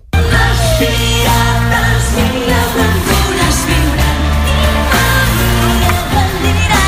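A children's band plays a lively, full-sounding song live at the eleventh Tio Solidari of Catalunya Ràdio in the morning, with steady bass and rhythm and bright melodic lines, loud and continuous throughout, with no talking over it.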